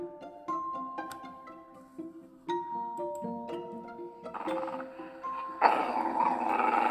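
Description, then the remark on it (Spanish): A dog growls over a light, chiming musical background, the rough snarl rising louder toward the end as the tune continues underneath. “El perro gruñe.”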